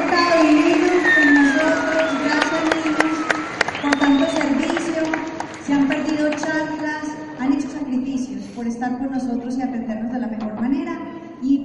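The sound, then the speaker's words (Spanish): A crowd in Bogotá applauds and cheers its hosts steadily for about twelve seconds, with dense clapping and raised voices shouting throughout at a fairly loud, even level. “Y un aplauso para mis hosts que se han”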